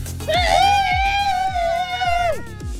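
A few voices let out one long, loud 'Monday scream' together, showing how Monday sounds, held for about two seconds before trailing off, with a steady thumping beat underneath.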